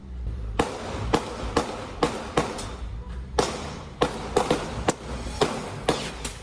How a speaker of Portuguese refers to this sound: Um motorista filmou o momento em que os policiais atiram na direção do homem. Os dois primeiros disparos não atingem. Ele joga mais duas pedras no veículo. Os policiais evitam com vários disparos.